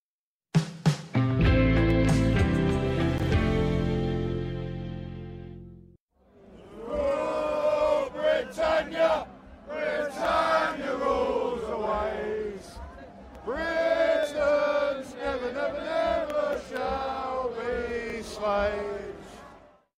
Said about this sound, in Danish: Ja, Britons never never ever shall be slaves. Britter skal aldrig nogensinde være slaver. Det her klip er fra 31. januar i år, hvor jeg stod med min optager i London omringet af festglade britter, der sang den her sang, Rule Britannia.